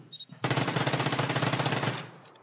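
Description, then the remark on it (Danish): A loud, rapid burst of machine-gun fire sound effect rattles for about a second and a half, sharp evenly spaced shots, cutting off abruptly after a brief quiet lead-in. “der har vi et segment, som hedder De 10 skud”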